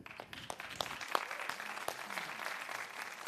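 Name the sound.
applause and cheering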